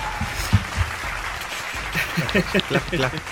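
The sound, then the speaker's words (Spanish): Faint, distant applause patters steadily for a few seconds, a soft scattered crackle of hands mixed with murmuring voices underneath. “Un aplauso bien lejano.”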